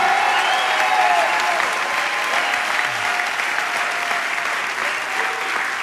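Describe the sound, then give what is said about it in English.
A large audience at a church service claps their hands together for about 15 seconds in loud, sustained applause, a dense continuous wash of clapping that holds steady throughout, with a faint murmur of voices beneath it. “Take 15 seconds. Clap your hands, all ye people. Shout unto God.”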